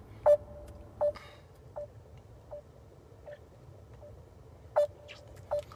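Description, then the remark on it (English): A phone number being dialed to place a call: seven short electronic keypad beeps at uneven intervals, clear, over a low steady background rumble with no talking. “I'm gonna call you, baby.”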